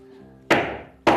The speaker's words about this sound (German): Und genau hier kommt jetzt das Langloch ein. Dann nimmst du das Langlocheisen und den Hammer.